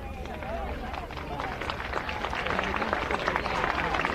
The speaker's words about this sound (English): Gets a round of applause as the brief conversation is over make sure his health is all right.